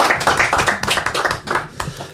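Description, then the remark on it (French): A burst of applause from a group, many hands clapping in a dense, steady patter that stays fairly loud throughout with no voices standing out. “Ah, ah on l'applaudit.”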